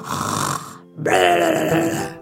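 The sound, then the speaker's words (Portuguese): A voice mimics the loud snoring of a wolf in deep sleep: one rasping, drawn-out inhale followed by a brief pause, then a longer, rumbling snore that stays loud before tapering at the end. “Finalmente, escutaram aquele ronco todo. Era o lobo que ainda dormia um sono profundo.”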